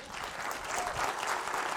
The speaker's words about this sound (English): a big round of uh, applause for Tim